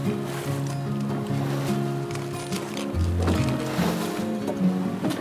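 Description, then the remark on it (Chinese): Ocean waves wash steadily around a boat at sea, a continuous rushing surf blended with sustained, shifting low tones, holding an even loudness throughout with no voices. “他搭船出海，船载着小男孩越过大海”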